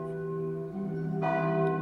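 The church bells of a citadel ring at sunrise with rich, sustained overlapping tones, and a fresh strike lands partway through, its resonance hanging in the air at a steady, fairly loud level with no voices.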